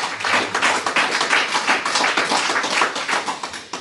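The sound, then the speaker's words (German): Applause from a crowd, a dense, steady patter of many hands clapping at once, fairly loud and sustained for a few seconds with no talking over it. “Ja, natürlich, gerne Applaus.”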